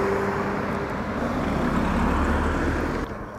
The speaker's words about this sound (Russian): Сейчас я буду двигаться вдоль проезжей части, поэтому будет немного шумно.